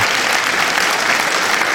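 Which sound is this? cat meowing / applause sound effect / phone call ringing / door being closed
applause sound effect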